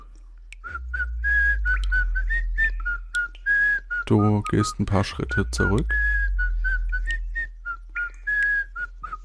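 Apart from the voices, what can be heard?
person whistling a tune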